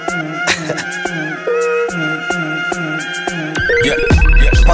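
A bright, synthetic phone ringtone melody loops in a steady rhythm over a thumping beat, loud, with the sound growing busier and denser toward the end.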